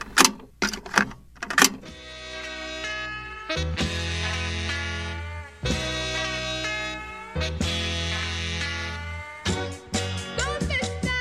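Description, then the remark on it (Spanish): A record of a song covered by a Venezuelan group, played sped up at 45 rpm, its music and voices pitched unnaturally high, with sharp percussive hits at the start and end; loud and continuous, with no talking over it. “lo han puesto a 45 revoluciones, ¿eh?”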